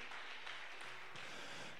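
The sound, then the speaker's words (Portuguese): An audience at an evening church service applauds the Lord in a steady, dense wash of clapping that holds evenly for a couple of seconds, with no voices standing out. “Aplaudo mais uma vez o Senhor, queridos.”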